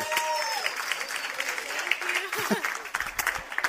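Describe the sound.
An audience applauds a volunteer, clapping steadily in a dense, continuous wash of applause, with a few scattered voices and cheers rising through it.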